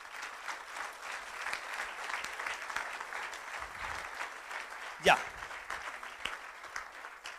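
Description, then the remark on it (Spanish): An audience at a church service applauds the brothers present, a dense patter of many hands clapping at even loudness throughout, with one brief sharper burst near the end and a short spoken word. “Denle un aplauso a nuestros hermanos que están acá.”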